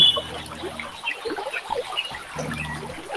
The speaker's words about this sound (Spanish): el sonido de las aves, pero también el sonido de la calma y el sonido de la armonía.